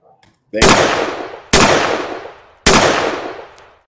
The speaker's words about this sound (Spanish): pasemos a los escopetazos. Eh, aguas a quienes se asustan con esos eh, balazos de pronto.